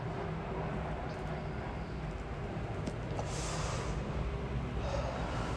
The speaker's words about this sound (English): Sorry, I have a plane going overhead, and I know sometimes you guys can't hear it, um, hear the plane in the background, but that one seemed pretty low.